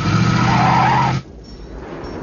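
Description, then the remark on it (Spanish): Outside a police station, a man carrying a rifle gets into a car and tears away with a loud, screeching tire skid lasting about a second, then the engine noise drops off abruptly into a quieter rumble as it speeds away. “Se monta en un coche y se marcha.”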